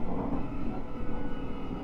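A Nishitetsu 9000 series electric train running between Yakuin and Futsukaichi, a steady low rumble and roar with a faint, even hum above it, holding at a constant level for the whole short stretch with no voices.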